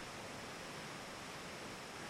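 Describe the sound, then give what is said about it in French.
A waterfall inside a cave rushes in a steady, unbroken roar, a dense wash of water noise that stays at an even level throughout with no voices or other sounds. “Peut-être qu'ils pourront m'aider si je les suis de l'autre côté de la cascade.”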